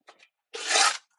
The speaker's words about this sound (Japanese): だいぶスコップの音がうるさいかもしれないですけど。いや、あの、まあ、僕はローダー持ってるんで、大変な切り返しはいつもローダーでやっちゃうんですね。で、今は小さなロットなんで、えー、2500リットルぐらいしかないんで